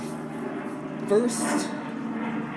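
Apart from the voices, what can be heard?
airplane flying overhead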